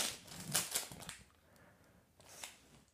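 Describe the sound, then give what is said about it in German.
Crinkling gift-wrapping paper sealed with ordinary sticky tape being torn open, with a burst of rips and crackles early on, a quieter stretch of rustling, then another sharp tear near the end. Fairly soft. “Scheiß, scheiß auf Liebe, reiß auf das Ding da.”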